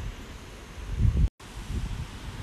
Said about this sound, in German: Der Wind es vielleicht halt so richtig laut rauscht.